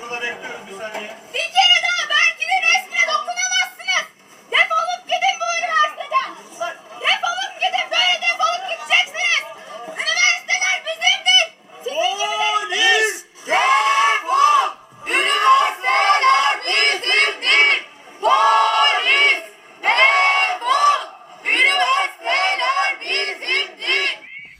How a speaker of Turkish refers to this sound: Polis ekipleri üniversiteyi terk ederken e, öğrencilerin e, polis ekiplerine e, karşı attığı sloganları dinlemiş olduk.